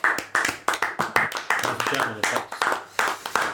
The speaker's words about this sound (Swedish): Mycket bra jobbat. Bara bra jobbat. En applåd. Ja.